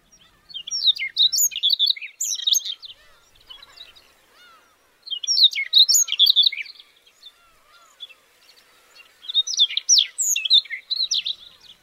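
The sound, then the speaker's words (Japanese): A Siberian rubythroat sings in three loud, clear bursts of varied, warbling high notes with short pauses between, in grassland in Hokkaido, Japan, with no voices present. “野駒は北海道限定の鳥です草原を渡る風に乗って野駒のさえずりが聞こえてくると北海道に来たなあという実感が湧いてきます”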